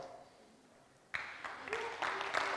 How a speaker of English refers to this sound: They're just, they're just clapping you just because of who you are.